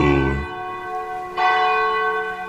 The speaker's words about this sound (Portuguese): Faltam 12 minutos para as 22 horas, bate o sino da Catedral de Nossa Senhora de Aparecida.